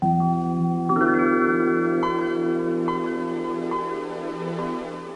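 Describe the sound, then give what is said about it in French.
The original Windows operating system startup sound: a warm synthesized chord swells and sustains while bright chime notes ring in one after another, clear and alone with no voices. “Oui, le son original, tu t'en souviens sans doute, c'était ça.”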